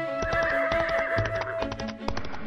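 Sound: horse neighing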